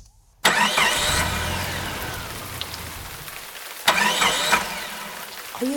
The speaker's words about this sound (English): having trouble starting your car, but once again, it's just too wet.